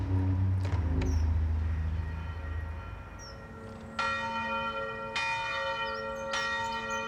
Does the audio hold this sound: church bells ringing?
yes